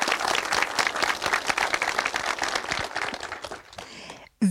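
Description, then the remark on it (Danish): A live audience applauds steadily, a dense wash of many hands clapping that keeps up for about four seconds, then thins out and stops abruptly before a brief final burst. “Velkommen til en helt særlig udgave af Rumsnak, nemlig Rumsnak Live med et spil levende publikum, som man kan høre her.”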